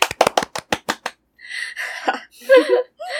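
A quick burst of about nine sharp hand claps in a fast, even rhythm, followed by bright, excited vocal sounds, like cheering or laughter, without clear words.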